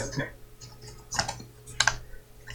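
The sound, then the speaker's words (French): Computer keyboard typing in a few short bursts of clicky keystrokes, quiet, over a steady low hum with faint murmuring in the background. “On entend quand tu tapes,”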